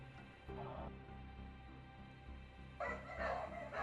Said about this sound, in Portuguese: Você começa a escutar uns latidos. Tem dois cachorros gigantes amarrados assim, tipo, com coleiras na parede para não deixar provavelmente nenhum foragido sair.